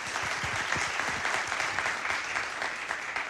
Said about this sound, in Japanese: どうぞ皆様拍手でお迎えください